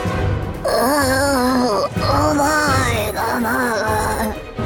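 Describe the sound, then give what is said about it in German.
Three drawn-out, wavering moans from a single male voice of a man asleep, fairly loud, each swooping and sagging in pitch with brief breaths between, against a low steady background hum. “Auch heute konnte man ihn wieder im Schlaf stöhnen hören.”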